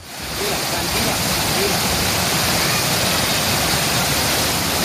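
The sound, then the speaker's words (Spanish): A dense, steady roar of torrential rain pours down without a break during a storm in Aragon, Spain, with a hiss of rushing floodwater beneath it that has risen above the height of cars. The loud downpour fades up quickly and then holds constant. “Esto es lluvia que caía, no es ningún televisor estropeado.”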